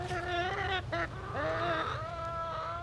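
A rooster clucks, letting out a quick series of loud, nasal calls one after another with no pause in between and no voices alongside, calling the hen after digging up a grain.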